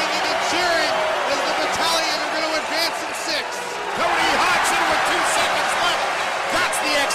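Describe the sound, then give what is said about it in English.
At an OHL playoff hockey game, the arena crowd cheers in a loud, steady roar for the full seven seconds as the clock winds down, with a commentator's excited voice running over the top of the noise. “Fans are going nuts.”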